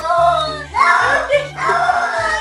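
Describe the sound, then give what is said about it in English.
A cat yowls loudly in drawn-out, wailing cries that sound almost like a voice shouting "no," repeated a few times over a steady low pulsing hum. The cat is protesting because it does not want to take a bath. “He's screaming the word no because he doesn't want to take a bath.”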